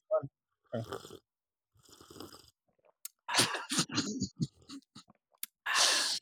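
Several noisy slurps and breathy sips of a cup of tea, taken together as a collective drink, coming in short bursts with gulps and exhales between, while someone makes brief vocal sounds.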